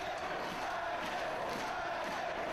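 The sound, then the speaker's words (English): A steady roar of a 2006–2008 Ring of Honor (ROH) wrestling arena crowd cheering and shouting during a Bryan Danielson match, loud and continuous throughout with no break, a dense wash of many voices and no single speaker standing out. “I like how into it the crowd is.”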